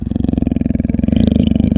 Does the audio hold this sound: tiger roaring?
yes